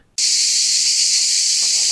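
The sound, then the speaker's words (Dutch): A loud, steady cicada drone starts abruptly and buzzes continuously at a high pitch, unbroken, with no voices present. “En de cicade.”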